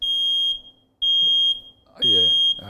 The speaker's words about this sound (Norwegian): Og det var røykvarsleren. Den funka. Det var røykvarsleren hørte det var karbonmonoksid. og Der skiller den seg litt fra en del andre røykevarslere. Altså Det er ikke bare en optisk røykevarsler.